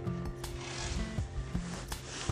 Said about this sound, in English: Got the ski jacket on. The zipper is on the bleachers making all sorts of weird noise. That's what that is. You're wondering.